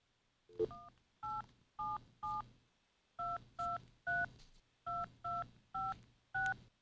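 Touch-tone keypad beeps from a phone dialing a telephone line of soothing sounds, a project by two artists in Victoria: a quick run of four or five clear dual-tone presses, a short pause, then seven more evenly spaced beeps, distinct with no talking.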